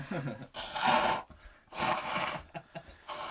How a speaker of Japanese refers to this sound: ちょっと一回鼻かんでいいですかすいませんすいませんちょっとすいませんカットしてくださいよ